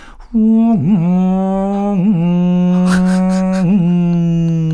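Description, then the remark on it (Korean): A voice imitates the engine of a motorcycle of over 1000cc with a loud, steady, low drone that dips and revs back up a few times, like throttle blips, lasting several seconds without any words. “제가 소리로 표현해 드릴게요.”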